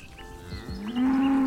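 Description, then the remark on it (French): A cow moos, a low sustained bellow that swells louder toward the end, with faint farmyard background and no talking. “Ah, c'est une vache, ça.”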